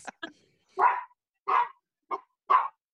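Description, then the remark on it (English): A household's dogs barking in a quick series of sharp barks, about six in three seconds, some short yips mixed with fuller woofs, loud and clear with no talking. “so those mockingbirds don't wind up the dogs while I'm doing this uh, podcast”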